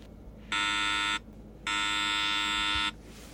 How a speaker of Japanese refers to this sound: そこにはちょうど目線の高さにスライド式の覗き戸のついた鉄の扉の前に通され刑事が壁についているブザーを鳴らした